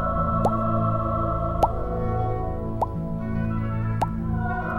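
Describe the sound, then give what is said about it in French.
Four soft mouth pops, made by puffing out the cheeks and opening the mouth regularly to imitate a fish, evenly spaced about a second apart, each a quick hollow plop with a slight upward pitch, over a steady low background hum. “Tu gonfles bien les joues et puis tu ouvres la bouche régulièrement. Ça fait un petit bruit, écoute bien.”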